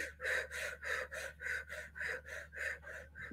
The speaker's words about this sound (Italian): Premere, fare circa nove respiri potenti dalla bocca e rilasciare. Un paio di secondi e poi di nuovo premere, nove respiri potenti